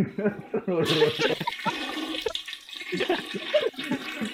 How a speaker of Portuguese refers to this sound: É, foi uma bosta mesmo que saiu, né? essa bosta merece uma descarga.